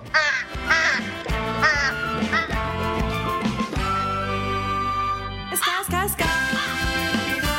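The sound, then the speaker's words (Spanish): Nasal duck quacks mingle with toots from small horns, the calls repeating in short bursts over steady, sustained honking tones. The mix is fairly loud and busy throughout, with no talking. “Y estamos oyendo aquí cuernitos y patos y de todo.”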